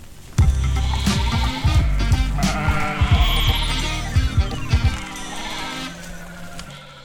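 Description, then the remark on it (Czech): Several sheep bleat loudly, their wavering, overlapping calls filling about seven seconds with no talking; the sheep are kept by a local farmer in a village near Paseky nad Jizerou, Czech Republic. “Vojta pečuje o místní louky a pole, chová ovce a působí v místním zastupitelstvu.”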